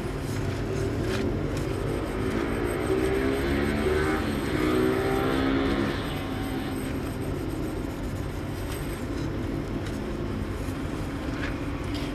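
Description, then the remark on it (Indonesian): Steady engine drone from motorcycle traffic on a distant road, heard through an open kitchen window, hums throughout, swelling slightly in the middle as vehicles pass, with a continuous low rumble and no voices. “kalau nonton showroom aku pasti selalu ada suara motor as a background ini back sound”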